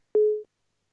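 A single short telephone busy-signal beep after a listener's phone call to a radio programme drops, a steady mid-pitched tone lasting about a third of a second, then silence. Clear and fairly loud, with no voices.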